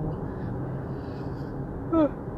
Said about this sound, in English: sorry, I yawned.